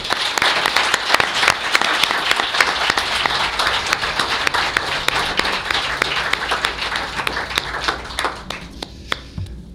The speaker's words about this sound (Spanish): Así que nada, con este aplauso te despedimos, amigo.